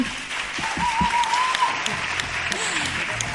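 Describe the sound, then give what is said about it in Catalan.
Loud, sustained audience applause in Palafrugell welcoming a guest, a dense wash of clapping throughout with a faint tonal whistle and a few low vocal sounds from the crowd mixed in. “Aquest fort aplaudiment una mica més fort.”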